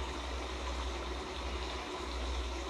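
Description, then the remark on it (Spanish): A river in spring flowing with great force down a slope through a green area: a steady, unbroken rush of water with a broad hissing wash and a low rumbling undertone, holding an even level throughout and no voices. “Y después de este invierno vuelve a ocurrir otra primavera y empieza poco a poco a bajar el agua.”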